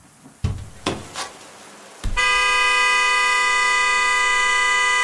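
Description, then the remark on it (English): A few thumps and a car door slam, then a fist strikes the car horn, which blares loudly and continuously, a steady harmonic honk held unbroken to the end. “Before my better judgment had a second to catch up with my body, I had already thrown open my car door, taken a step out, and slammed my fist into the horn.”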